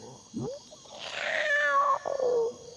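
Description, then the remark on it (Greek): A cat meows once, a short chirp followed by a long, drawn-out wavering meow that rises and falls in pitch, fairly loud, with no talking. “Το λέει και η γάτα του Ζωζέ Σαραμάνγκου.”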